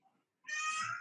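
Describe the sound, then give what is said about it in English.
A young girl, a daughter with her mother, lets out a loud, high-pitched squealing vocalization, sustained for about half a second after a faint murmur. “y'all might hear her right now.”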